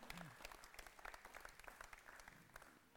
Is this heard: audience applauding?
yes